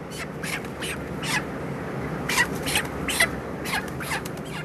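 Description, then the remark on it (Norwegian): A dense, continuous din of about 15,000 chickens, nearly ready for slaughter, crowded in a poultry hall on a farm in Melhus, with overlapping chirps and clucks rising above a steady low rumble. “Det er kyllinger overalt i denne halen, 15 000 i tallet.”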